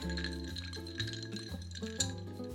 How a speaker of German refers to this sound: Anderthalb Unzen Amaretto, also genauso viel, sprich 45 Milliliter Amaretto. Und ganze 6 Unzen, das sind 180 Milliliter Cola, kommt oben drauf. Ihr braucht dementsprechend also ein etwas größeres Glas zu mixen. das Ganze umgerührt